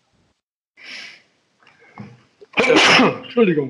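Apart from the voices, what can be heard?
sneeze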